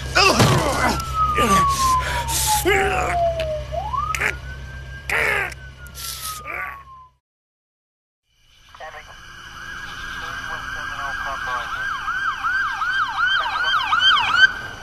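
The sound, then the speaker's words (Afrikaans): An ambulance siren wails in a long falling then rising sweep amid bursts of rumbling street noise, cuts out briefly, then returns as a rapid, steady yelping siren, fairly loud. “Hoekom is die ambulans hier?”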